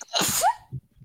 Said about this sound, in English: And uh, I'm gonna sneeze.